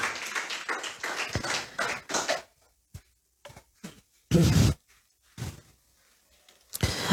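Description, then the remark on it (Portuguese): Congregation applause for the Lord: a dense burst of clapping from many hands for about two seconds, then it dies away into a few scattered claps and knocks with quiet gaps between. “Aplauda o Senhor.”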